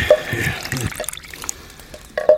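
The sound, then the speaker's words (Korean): Water is poured for an elderly person to drink in a short splashing stream for about a second, then stops, followed by a few faint drips and a light clink near the end. Fairly quiet. “어, 르신 목이라도 좀 축이세요.”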